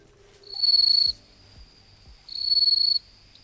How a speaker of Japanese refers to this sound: 皆さんちょっと聞いてみたいと思います、はい、じゃあまず、はいはい、スズムシの音を聞いてください